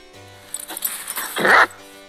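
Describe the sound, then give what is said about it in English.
A large dog, Mac the Wolfhound, gives a few soft huffs and then one loud bark before falling quiet; no one speaks. “Before the conclusion of this tale drama, we shall move on to wow or woof as I welcome mine own friend, mine own theatre partner, Mac the Wolfhound.”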